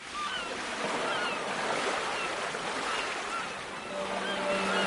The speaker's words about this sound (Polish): Lubisz szum morza? My też.